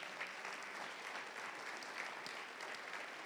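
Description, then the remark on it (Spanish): A crowd applauds steadily, many hands clapping in a dense, continuous wash of sound that stays fairly even in loudness for a few seconds, with no voices standing out. “Denle un aplauso solo por eso, ¿me entienden?”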